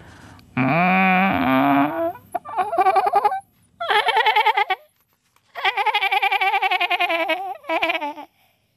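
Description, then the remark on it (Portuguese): A sheep bleats several times in a row, long wavering cries with short pauses between them, fairly loud, with no one talking. “a ovelha chegou-se à beira da pastora, afagou-lhe as pernas com a sua lã e como era uma ovelha muito sensível e estava realmente abatida com a preocupação que tinha, baliu quase a desfalecer.”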